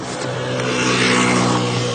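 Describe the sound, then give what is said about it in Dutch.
A pizza delivery vehicle's engine drones loudly, a steady buzzing hum that swells slightly as it drives past, with no voices. “Pizza bezorgertje.”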